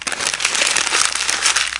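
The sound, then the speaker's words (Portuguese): A sheet of paper is picked up and handled, giving a continuous crinkling and rustling that stays fairly loud and busy for the whole moment, with no voices. “Vou pegar, vou pegar a folhinha, vou pegar a folhinha, vou pegar a folhinha.”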